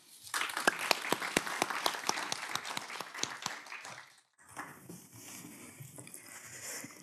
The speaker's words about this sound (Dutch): Mag ik een warm applaus?